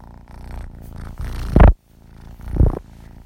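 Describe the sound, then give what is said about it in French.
A cat named Virus purrs steadily while lying on the speaker's bullet journal, a low rumbling drone with rhythmic swells, with a couple of louder bursts and a brief pause in between. “putain il est en train de me plier ma page. Virus s'il te plaît. Oh il est gentil.”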